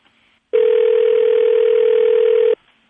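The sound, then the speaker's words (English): A single steady telephone ringback tone sounds loud and clear for about two seconds as a call is placed to a woman's daughter, with only faint background noise before and after and no one speaking. “Let's call her daughter right quick, see if we can get her on the phone.”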